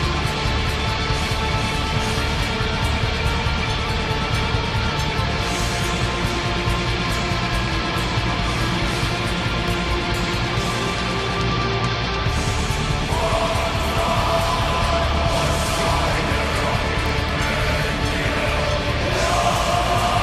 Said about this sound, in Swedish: Jävla pampigt sångar alltså, blanda eh, sång med eh, skrik.